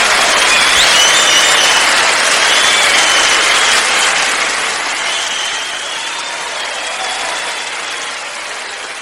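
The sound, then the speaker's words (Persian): Sustained applause from a large crowd, a dense steady clatter of many hands with a few whistles over it, loud throughout and easing off slightly toward the end. “من قربون این تشویق فوقلاده شما برم”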